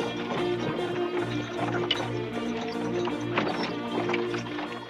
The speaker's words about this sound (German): Nur wenige Wochen später verlassen drei vollbepackte Pferdekarren die Stadt Weimar.